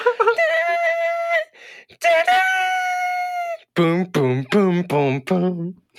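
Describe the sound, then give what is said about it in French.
A lone voice sings the fanfare of Also sprach Zarathustra, the music heard in 2001: A Space Odyssey: two long, loud held notes, then a quick run of short, punchy sung syllables mimicking pounding drum beats. “C'est la musique qu'on entend dans 2001 Odyssée de l'espace. Vous savez, le ah tu fais si bien”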